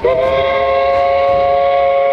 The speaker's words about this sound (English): but as he boards a whistling steamboat in St. Louis for a trip up the Missouri